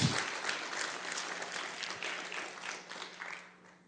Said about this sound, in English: Let's give them another round of applause. I think they need an extra special round of applause.